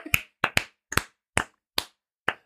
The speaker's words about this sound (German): komm, wir klatschen jetzt einmal einfach mal für die schlauen Leute. Wir klatschen, okay.